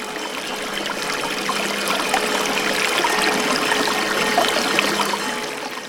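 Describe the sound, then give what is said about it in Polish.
Holy spring water trickles and splashes steadily at the chapel with holy water in Gredele, belonging to the Orthodox parish of St. Elijah in Podbiele, gmina Bielsk Podlaski; a continuous bubbling flow that stays even in loudness throughout, with no voices. “Zawsze można do niej dotrzeć i mm, zaczerpnąć świętej wody.”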